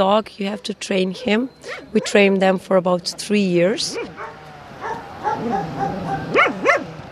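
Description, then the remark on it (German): A truffle-hunting dog in Istria barks in a rapid run of sharp, high yips, ending in a drawn-out whining bark, followed by quieter talking in the background. “Dafür braucht man einen Hund und wir trainieren unsere Trüffelhunde drei Jahre lang.”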